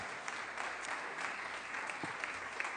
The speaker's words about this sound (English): And you hear that? That's for you guys. All that clapping is for you guys.